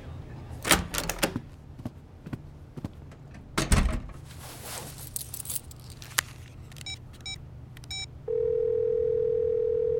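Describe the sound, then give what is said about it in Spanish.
Clicks, rustling and handling clatter give way to a few faint electronic pips, then a loud, steady telephone tone of a voicemail call cuts in near the end and holds without a break. “Deja su mensaje después del tono.”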